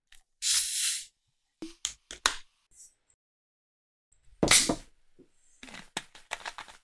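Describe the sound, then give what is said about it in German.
Soda being poured into a glass: two bursts of bright hissing separated by sharp clicks and taps, ending in a run of fizzy, crackling pops. No one speaks. “Also, ich gieße es mal ein.”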